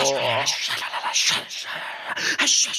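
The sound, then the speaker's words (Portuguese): Paper letters are tossed up into the air and shuffled, a busy run of crinkling, rustling bursts lasting a few seconds, with a brief vocal sound at the very start. “Vamos lá, joga as cartinhas para o alto.”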